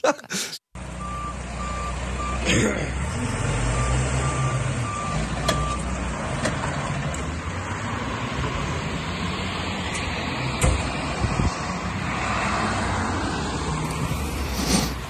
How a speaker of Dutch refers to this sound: Ja, wat eh, denk jij dat je daar zojuist hoorde? Eh, het klinkt als een, eh, een, een, vrachtwagen die achteruit aan het inparkeren ja, is.